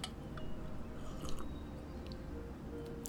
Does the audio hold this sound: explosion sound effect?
no